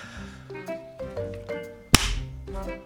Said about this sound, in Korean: 아! 지금 뭐 한 거야? 아니 좀 전에 드라마를 봤는데 거기서 여주가 남주 뺨을 때리더라고. 한번 해보고 싶었어. 재밌네. 뭐? 드라마를 보고 해보고 싶어서 내 뺨을 때렸다고?